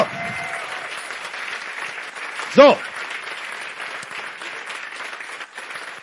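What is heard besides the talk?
audience applause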